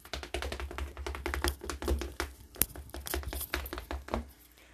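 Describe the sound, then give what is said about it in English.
Rapid tapping in a quick, steady patter, someone drumming fingers or hands on a hard surface to mimic fast running footsteps. No talking. “I was like, I went like, oh, oh, oh, this is the sound of me running.”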